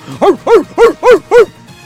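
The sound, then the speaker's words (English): A person imitates a dog with five loud, evenly spaced barks in quick rhythmic succession, each a short voiced woof, with no other talking. “barking through the roof.”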